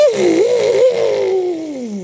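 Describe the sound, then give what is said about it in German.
A voice imitates a vacuum cleaner motor with a loud, sustained droning whir that wavers slightly and then slides steadily lower in pitch for about two seconds, with no other sounds. “Rirrr, macht der Motor, der Staubsaugermotor.”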